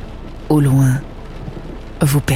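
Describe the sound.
Steady rain falls and trickles outside a house in a continuous soft hiss, broken by two brief voiced sounds over the top.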